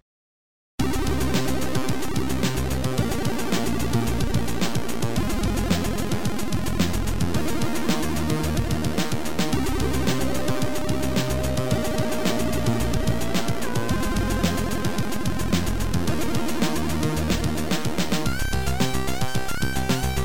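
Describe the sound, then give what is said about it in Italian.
Video game in-game music: a busy, dense electronic track with a steady driving beat, repeating bass pattern and bright melodic lines, loud and continuous throughout with no voices. “ma anche la in-game music che andiamo ora a sentire.”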